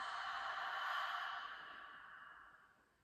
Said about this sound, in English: And we'll start by breathing in and exhaling through the mouth. And imagine that you're trying to fog up this piece of glass or this window with your breath as you exhale. So it looks like this inhale, open mouth, exhale.